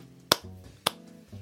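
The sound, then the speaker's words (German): A brief bit of applause from one person: two sharp, crisp claps about half a second apart, with a low, quiet voiced murmur in between and after. “Hier ein kleiner Applaus von mir.”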